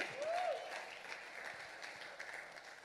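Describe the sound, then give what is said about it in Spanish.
An audience applauding in a steady, dense patter of many hands clapping at once, a bit subdued and scattered, with a brief rising whistle-like tone near the start. “Mira, hasta le costó aplaudir.”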